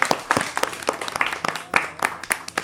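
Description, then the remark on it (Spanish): Schoolchildren applauding during a class visit to a radio station: a steady patter of irregular, overlapping hand claps at moderate loudness, continuing throughout with no voices on top. “Oye, un aplauso para todos que lo habéis hecho fenomenal.”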